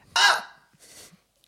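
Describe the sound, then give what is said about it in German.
A voice imitates a stifled scream of fright: one short, sharp, choked cry, followed by a fainter breathy catch a moment later. “Und das war so krass, dass ich dann so einen erstickten Schrei ausgestoßen habe.”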